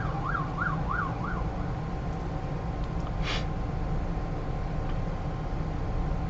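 An emergency vehicle siren gives four quick rising-and-falling yelps, then fades out, leaving a steady rumble of road traffic with a brief whoosh near the middle.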